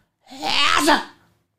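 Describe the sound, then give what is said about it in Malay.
A person imitates the loud, exaggerated way some people sneeze, loud enough for a whole house or block to hear: one drawn-out, forceful burst, rising and then cutting off after about a second. “Ada orang... Uh, ada orang kalau dia bersin”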